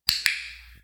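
A plastic dog training clicker, held in the hand and pressed down with the thumb, gives a crisp double click, two sharp snaps a fraction of a second apart, fairly loud, with a brief ringing tail and no voices.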